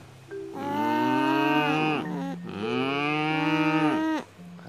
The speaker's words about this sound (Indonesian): Dia si si banteng putihnya gimana tadi teriaknya?